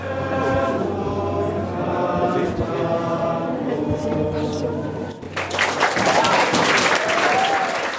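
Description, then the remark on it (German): A steady murmur of voices with tonal, hum-like sounds gives way after about five seconds to a loud, sustained burst of applause and cheering at a food counter, partly for a volunteer kitchen logistics chief, that continues to the end. “denn der Jubel an der Essensausgabe in Sichtweite galt auch ihm.”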